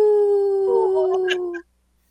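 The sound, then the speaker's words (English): A person imitates a wolf howl with a single sustained, steady tone held loudly for about a second and a half, wavering slightly near the end before cutting off into silence. “I'm, I'm not an expert Wolf Howler yet, but I'll get there.”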